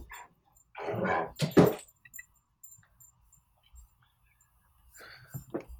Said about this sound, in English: Well, let's actually let me take a second. a dog needs to come in.